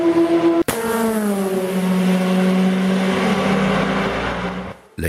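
A WM race car engine at the 24 Hours of Le Mans roars loudly, passing 400 km/h with high turbo boost, its pitch sliding gradually downward as it speeds past, with a sharp crack near the start and an abrupt cutoff at the end.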